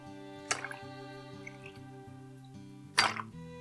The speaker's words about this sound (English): Now we're going to fill the glass mostly with ice and, of course, add our whiskey. So, ice first. I'm trying to be careful so it doesn't splash too much. And time for our whiskey 60 millilitres,